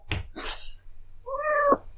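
A domestic cat climbing up lets out one clear, drawn-out meow, preceded by a couple of brief soft thumps and rustles, with no one speaking.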